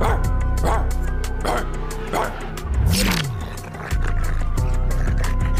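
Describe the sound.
A person imitates a dog, letting out several sharp barks followed by a rising and falling whimper, fairly loud over a steady background bed.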